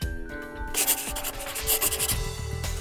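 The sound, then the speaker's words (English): A pen scratches across paper in a quick series of rough, raspy strokes as Antonio signs the loan paper for Shylock after a brief quiet moment, with no one speaking. “Antonio signs the paper.”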